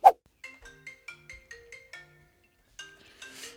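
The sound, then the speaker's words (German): A mobile phone rings with a quick melodic ringtone: a run of short electronic notes, a brief pause, then the tune starting again, clear with no talking. “Ah, Handy ist schon mal auf lautlos.”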